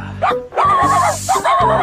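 A small dog barks three times in quick succession, each bark a loud, high-pitched yap with a drawn-out, slightly whiny tone, and no one speaking.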